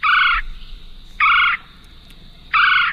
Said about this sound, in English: That is the red bellied woodpecker. And uh, this is a bird that eats insects and spiders and stuff like that, and maybe nuts and pine cones and whatnot.